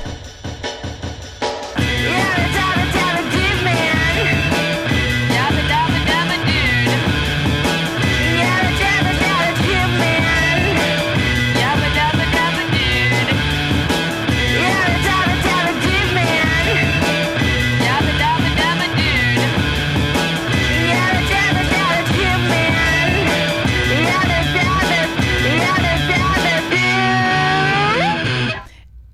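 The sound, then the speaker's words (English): A full-band electronic rock song plays loudly and steadily for nearly thirty seconds, with a driving beat, distorted layers and a dense, bright mix, cutting off abruptly at the end. “All right, do you want me to hit play on this thing? Yeah. All you, again, all you're gonna hear is the song.”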